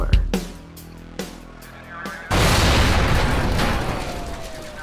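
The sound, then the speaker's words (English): A couple of sharp booms go off, then a much louder explosion erupts into a sustained, roaring rumble of debris and noise that slowly fades; explosions throughout a presidential rally across a six-block radius, including a park and an intersection. No one speaks. “where are those explosions coming from?”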